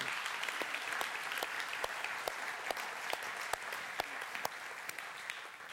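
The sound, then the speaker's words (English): An audience claps and applauds steadily, a dense wash of many hands with sharper individual claps popping out irregularly, sustained at an even level without any talking. “We, ca- we clap and we applaud because they're beautiful but we want our lives to be consistent with them.”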